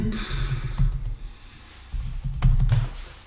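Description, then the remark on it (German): Keys clack on a computer keyboard in two quick bursts of typing, with a brief pause between them; the clicks are steady and moderately loud, with no voices. “Aber man muss einfach nur eingeben, NFL-Kühlschrank oder so und dann kommt schon.”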